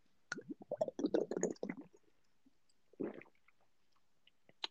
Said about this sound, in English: Why was that so smooth? Good shit, man. Actually, was that you actually taking a drink? Yeah.